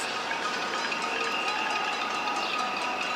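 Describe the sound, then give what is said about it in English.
New York City residents cheer at 7 o'clock from windows, balconies and roofs for healthcare and essential workers during COVID-19, the sound bouncing off tall buildings: a steady, dense wash of crowd noise with no pauses, some thin high whistle-like tones running through it and no single voice standing out. “Everyone's cheering for the healthcare workers and essential workers.”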